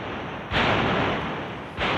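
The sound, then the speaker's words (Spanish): Heavy cannon salute fire, part of a 21-gun salute announcing King Alfonso XIII leaving the Royal Palace for the Carrera de San Jerónimo, with two loud booming blasts about a second apart, each swelling into a long, rolling rumble. No voices are heard. “21 cañonazos anunciaron la salida del rey del Palacio Real camino de la carrera de San Jerónimo.”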